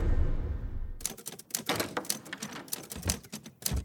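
Brisk, uneven clacking of typewriter keys, fairly loud, starting after a second of low rumble and continuing in quick bursts with no voices.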